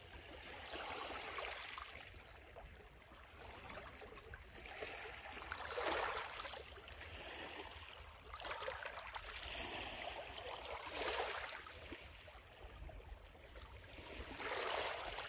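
Gentle beach waves wash in and recede in slow, regular swells every few seconds over a steady watery hiss, with no voices.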